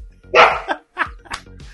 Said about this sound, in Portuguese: cachorro latindo na hora. Pois é. Que cachorro é, é, esse, meu cachorro. É, o meu cachorro.